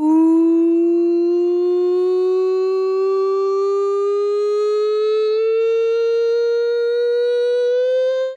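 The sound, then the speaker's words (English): A loud 'nonsense siren' sound effect introducing a segment: one steady, buzzy tone that climbs slowly and evenly in pitch for about eight seconds, then cuts off abruptly. No voices are heard. “Right, Sam, the nonsense siren.”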